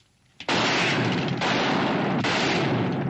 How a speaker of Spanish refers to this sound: Roy y el resto, que ignoraban a Rufus a pesar de que éste está destrozando el local con sus disparos, le abaten a tiros cuando se atreve a disparar contra el retrato de Lily Lantry.